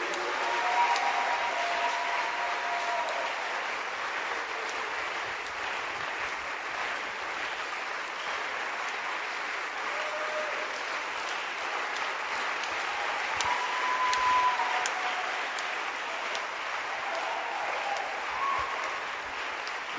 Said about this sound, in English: Clap your hands for Jesus. Your hand clap is very weak.